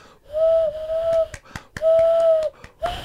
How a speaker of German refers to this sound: Applaus von einer Person klingt immer ähm, ein bisschen traurig, aber ich meine, er ist ehrlich gemeint und ganz von Herzen.